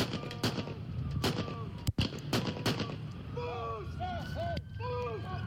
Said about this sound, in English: Hey, we got shots fired.